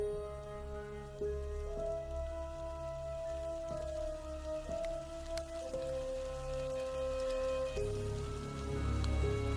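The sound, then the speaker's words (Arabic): Steady rain patters continuously beneath slow, sustained, mysterious ambient music notes that shift every second or two. There are no voices, and the rain stays fairly even throughout. “وكالعادة كل يوم سبت بحكي التجارب على صوت المطر والمزيكا الغامضة”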